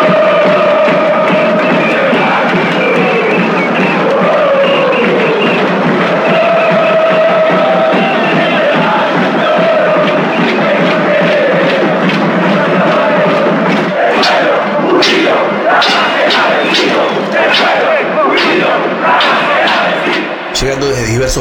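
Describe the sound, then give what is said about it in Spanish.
A large, loud crowd of protesters marching at night toward the Plaza de Mayo and Congress in Buenos Aires, Argentina, chants and shouts the slogan "Que se vayan todos". Partway through, sharp metallic clangs of cooking pots being banged join in, striking in a rapid, fairly regular rhythm over the roar of voices. “Esa noche del 19 de diciembre, una multitud comenzó a marchar hacia la Plaza de Mayo y el Congreso, golpeando las cacerolas y vociferando la consigna que había atravesado a todos los argentinos desde las elecciones legislativas.”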